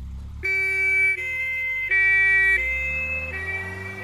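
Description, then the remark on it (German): A loud two-tone ambulance siren alternates steadily between a higher and a lower pitch, each tone held for under a second, over a low engine rumble. No one speaks. “Seit dem Fieberkrampf unseres Sohnes höre ich diesen Sound nochmal ganz anders.”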